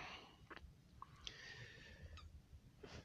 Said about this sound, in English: Do y'all hear this, this squeaking? That's um, it's my lungs, but it's it's just a temporary thing.